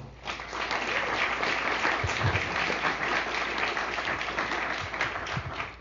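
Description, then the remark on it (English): An audience applauds steadily for several seconds as a novelist is introduced as a speaker, a dense wash of many hands clapping at once, sustained and fairly loud throughout with no voices standing out. “So, let's hear it for”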